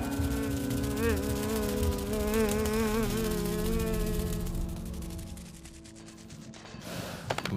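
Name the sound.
bees buzzing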